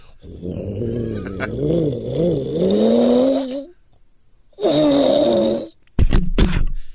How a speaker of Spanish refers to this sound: acelera con un Lamborghini Huracán Performance